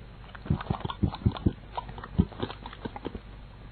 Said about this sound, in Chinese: 这是什么声音？兔妈妈发现了，原来兔宝宝坐在背篓里啃起萝卜来了。